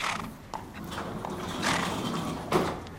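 A horse named Max, a steady horse weighing about 500 kg, moves in a stable, with a few hoof thuds, shuffling and creaking wood over a low, steady background hum; no one speaks.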